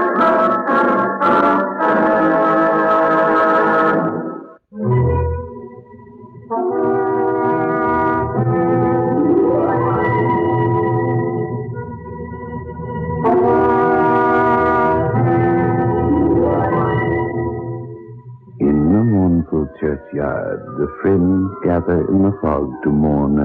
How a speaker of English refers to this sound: An organ drones over the scene.